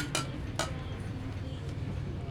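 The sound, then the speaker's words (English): Two bright, quick clinks of cups knocking together in a toast at the Storytellers Tavern, a half-second apart, over a low steady rumble with faint background murmur. “we've got some cups, so why don't we pick them up? And if one of you would lead us off in a toast”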